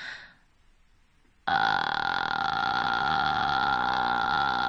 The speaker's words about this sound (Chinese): 那在这个发这个气泡音啊的时候要注意了啊，就是你要保持气息的稳定性，持续的发出啊这个音，不能。断断续续的就不好了，所以你要让你的气息很平稳的拖着你这个气泡音往前走。